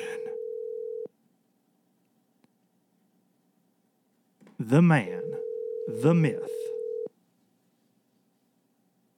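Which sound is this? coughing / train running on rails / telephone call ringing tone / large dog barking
telephone call ringing tone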